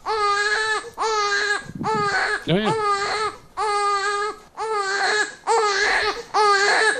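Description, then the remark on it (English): An infant boy screams and cries in loud wails, one shrill burst after another with only short gasping pauses between them. An adult voice briefly speaks underneath. “he just screams. Yeah. And, and this is what it sounds. I actually recorded this just so people know.”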